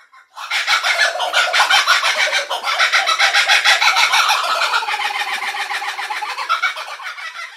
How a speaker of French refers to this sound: Cet oiseau s'appelle le kukabura et je peux vous assurer qu'il est impossible de rester éveillé en dessous. C'est aussi un oiseau qui a une place assez importante dans la culture euh, aborigène.